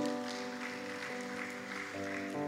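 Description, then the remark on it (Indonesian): An audience at a church worship service applauds for God steadily for a couple of seconds, the clapping dense and fairly loud, while sustained organ-like keyboard chords ring underneath. “Berikan tepuk tangan buat Tuhan.”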